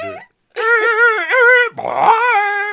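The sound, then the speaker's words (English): A voice imitates screeching car brakes: a brief squeal, a short pause, then two long, strained, wavering screeches, loud, with a whiny, almost dog-like quality. “I soon found the police station and screeched to a stop in front of the building.”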